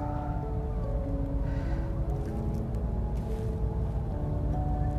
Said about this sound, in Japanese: なんかね、消防車とか救急車とかなんかやっぱ事故かなんかかな